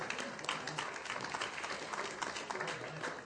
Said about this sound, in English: you can clap for that. Let's go.